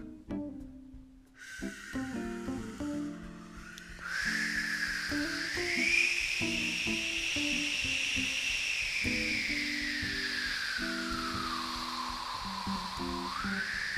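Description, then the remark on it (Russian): A steady howling wind at the North Pole whistles and hisses throughout, its pitch rising and slowly sweeping down, with soft low tones and faint crunching of snow underneath; no one speaks. “У вас зашумело в голове, захрустело в ушах. Это снег и ветер.”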